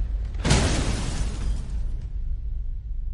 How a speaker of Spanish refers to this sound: La moto se estrella.